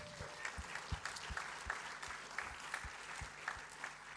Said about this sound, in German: Ich möchte heute Abend einfach all diesen Leuten, die so richtig sich reingegeben haben, und Hand angelegt, wirklich mal einen warmen, herzlichen Applaus geben. Wow, danke vielmals.